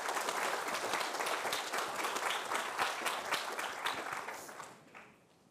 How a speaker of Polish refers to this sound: Oklaski dla naszych pracowników i klientów. Dziękuję.